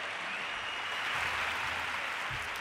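An audience in Málaga claps steadily, a dense wash of many hands that stays fairly even in volume for a few seconds, with no one speaking over it.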